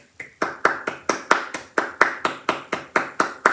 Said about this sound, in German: Wir müssen mal kurz klatschen für die Leute, also für den für die Autorin.